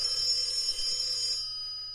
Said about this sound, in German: Alter Schwede, Ding Dong. Ist mal, ohne Scheiß, das grüne Telefon klingelt jetzt, oder was?